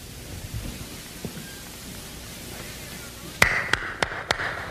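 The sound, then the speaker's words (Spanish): A steady, rushing roar of wind from a heavy snowstorm in the Alps mountains fills the background throughout, then four sharp knocks land in quick succession near the end. No one speaks. “Esa tarde estaba yo en plena montaña cuando me sorprendió una tremenda tormenta de nieve.”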